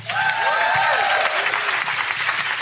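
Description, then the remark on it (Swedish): Steady, dense applause from an audience welcoming the first guest, writer Andres Locko of Killinggänget, a continuous wash of many hands clapping at even loudness throughout, with a few faint whistles or cheers rising above it. “Ge en varm applåd till Andres Locko.”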